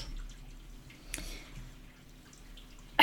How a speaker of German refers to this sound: Ist das von der Waschmaschine oder? Nein, das ist ähm, jemand duscht oben.